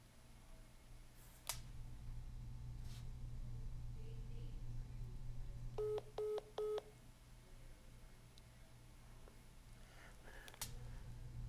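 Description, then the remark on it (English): A quick run of three or four telephone keypad tones beeps out near the middle, clear, over a steady low hum with a few scattered clicks and knocks, as someone dials to get a caller back on the phone. “So we'll get her back on the phone here.”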